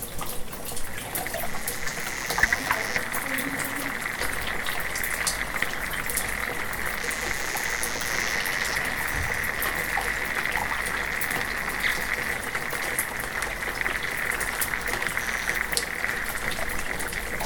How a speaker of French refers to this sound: L'eau, c'est vraiment la vie. Et on le sent dans le son, le son de l'eau est un son de vie.